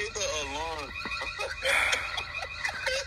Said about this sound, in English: Hit the alarm on this nigga. Please put an alarm on it.